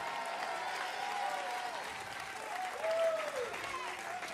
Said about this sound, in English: Come on, if you receive that one more time time. Clap your hands. Give the Lord a mighty shout of praise.